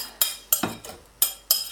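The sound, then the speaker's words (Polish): A spoon scrapes and knocks against the sides of a pot as thick cake batter with dried fruit is stirred after the last portion of flour is added, with about six bright clinks in an uneven rhythm, fairly quiet, with no talking. “ostatnia porcja mąki ląduje w garnku. I po e, jej wymieszaniu z resztą składników”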